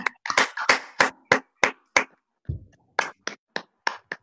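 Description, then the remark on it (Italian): A dozen or so sharp, scattered handclaps in an irregular rhythm, thin and sparse like a few people applauding over open microphones, with a brief low rumble partway through and no talking. “Io direi che un applauso ci vuole tutto tutto.”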